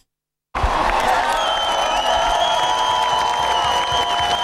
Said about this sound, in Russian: Тысячи людей, овации, флаги и море эмоций.